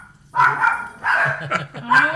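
A dog barks loudly, letting out three sharp, yappy bursts in quick succession with brief pauses between them.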